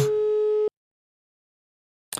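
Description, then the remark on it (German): A telephone ringback tone heard while calling someone's phone: a steady mid-pitched electronic beep lasting under a second, a silent gap, then the next beep beginning. No one speaks over it. “So, es müsste bei ihm jetzt klingeln.”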